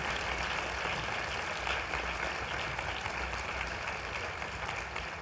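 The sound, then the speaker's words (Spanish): Sustained audience applause fills the whole stretch, a dense, steady wash of many hands clapping at an even level with no voices standing out. “E Aplaudan.”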